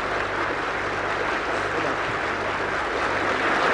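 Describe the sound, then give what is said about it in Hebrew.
A large crowd in the Israeli Knesset gives sustained applause as Egyptian President Anwar Sadat enters and sits at the presidium stand, with everyone on their feet, coalition and opposition. It is a dense, steady wash of clapping hands with no pauses. “ופה המון מוחא כפיים.”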